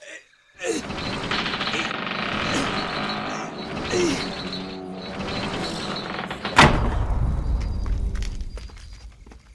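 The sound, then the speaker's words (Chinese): A drawbridge being lowered: steady mechanical clanking and creaking with a grinding, ratcheting texture, then a sudden heavy thud and a deep, lingering low rumble that fades out. “喂，放吊桥。 是，放吊桥。”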